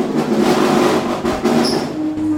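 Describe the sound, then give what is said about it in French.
An observatory dome's roof shutter is closed by a three-phase electric motor, grinding shut with a loud, steady mechanical rumble, a low droning hum and a brief high squeal near the end. “donc on va refermer maintenant le, le cimier, refermer l'observatoire.”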